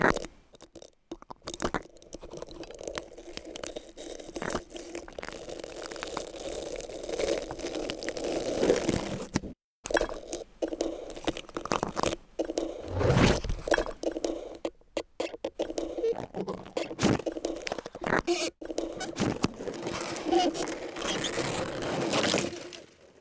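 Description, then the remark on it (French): A microphone scrapes and rubs against a cactus, producing continuous crunchy, crackling friction noise with irregular bursts and brief pauses, no voices present. “Sur cactus.”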